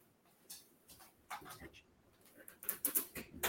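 Dogs being let out of their rooms, moving about with quick, irregular clinks and clacks, light metallic taps and scrabbling that grow busier and louder toward the end, with no one speaking.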